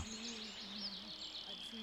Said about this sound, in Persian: بس که گنجشکا سر و صدا میکنن